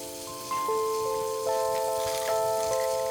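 Hands being washed under a running tap at a bathroom sink in a small one-bedroom apartment in downtown Madison, Wisconsin: a steady, hissing splash of water into the sink, with a thin whistling tone from the faucet that rises and shifts slightly. No one speaks.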